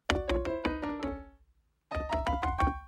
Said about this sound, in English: Door open or closed? Uh, open's fine. Good, because I think I broke it when I barged in.